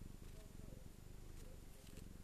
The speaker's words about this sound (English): As usual, my cat's here. Maybe you can hear her purr.